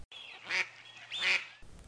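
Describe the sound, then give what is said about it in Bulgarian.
Two nasal duck quacks, fairly loud, spaced about a second apart, with a faint steady hum underneath and no voices. “Който страда от тази странна фобия, непрекъснато има чувството, че някъде по света има патица, която го наблюдава.”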